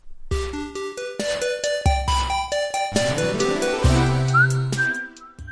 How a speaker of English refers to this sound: that whistling sound is going to get stuck in your head real bad. This is uh, a song from Part Time UFO. So it is a little mobile game.